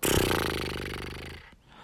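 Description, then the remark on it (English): A single lip trill lasting over a second: a buzzing, rapid flutter of air sent through loose lips, fairly loud, with a slight pitch carried under it before it trails off. “by sending air through your lips and letting them flutter like a little horse sound.”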